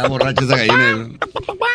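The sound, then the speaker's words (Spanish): A person imitates a chicken, starting with a drawn-out squawking cry, then a quick series of four or five short, choppy clucks, loud. “¿Cómo le hacen las gallinas?”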